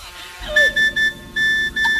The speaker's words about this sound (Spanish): Ay, espérate, espérate que me está sonando el móvil un guasa de la arcayata.